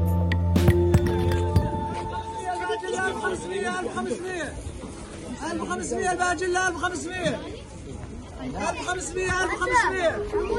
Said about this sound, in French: Nous sommes sur le marché du camp de Al-Hol, dans le nord-est de la Syrie, tout près de la frontière irakienne.